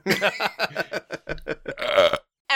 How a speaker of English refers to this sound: with that, we're going to pause there on dual burps.